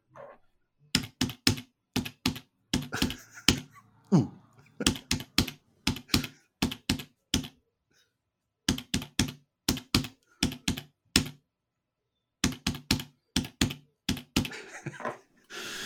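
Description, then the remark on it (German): Rapid clicking of keys on a computer keyboard, fairly loud, in irregular bursts with short pauses, including a brief silent gap midway. No one speaks. “Das war nämlich eindeutig keine Schreibmaschine, sondern eine Tastatur.”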